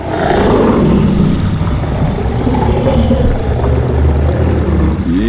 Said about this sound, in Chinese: 突然间呢，河边出现了一个恐龙的吼叫声音哦。